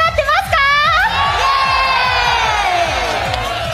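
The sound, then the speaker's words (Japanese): A live audience at a public recording of a Nogizaka46 show at Yamanakako Kōryū Plaza Kirara, Yamanashi Prefecture, Japan, cheers and shouts together, high excited voices rising in a sustained roar, with rhythmic low thumping underneath throughout. “それでは始めましょう乃木坂46の「の」スノの今日は山梨県の山中湖交流プラザキララから公開録音です”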